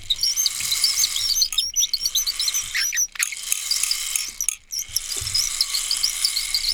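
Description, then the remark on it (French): A small bird in a poplar tree chirps in quick, repeated bursts somewhere in the background, fairly faint against a steady outdoor hiss with occasional low rumbles; no one speaks. “On entend au fond un petit oiseau qui est perdu dans un peuplier.”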